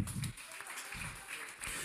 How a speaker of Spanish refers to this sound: dale otro aplauso fuerte al rey hermano